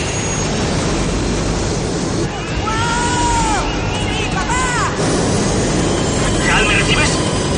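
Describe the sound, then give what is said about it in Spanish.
An airplane flown by a boy's father takes off, as remembered from the boy's childhood, with a loud, steady engine roar that never lets up, rising whining tones sweeping through the middle, and a murmur of people's voices beneath it. “Hal vuelve a recordar cuando era niño y vio despegar un avión.”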